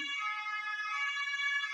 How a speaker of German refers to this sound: Alarm! Alarm!